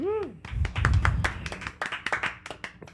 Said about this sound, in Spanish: un aplauso.